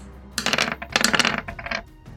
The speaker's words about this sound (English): Ooh. And I rolled an 18 on the dice.